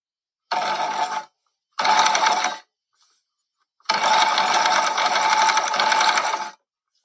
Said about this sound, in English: Okay, so the answer was there is a rotary element to this. It was a sewing machine.